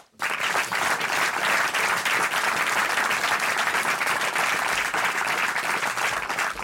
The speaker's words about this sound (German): Das ist Ihr Applaus.